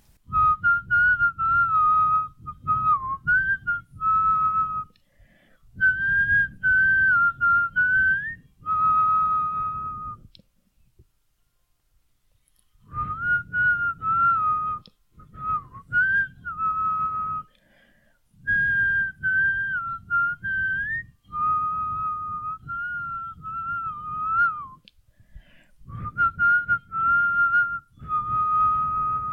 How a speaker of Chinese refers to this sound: 说真的，这一集不知道要吹什么口哨歌才好，但是思来想去，带给大家一首在高中、大学时期非常喜欢的一首很经典的歌曲，到现在都是很经典。我们就来听听看吧。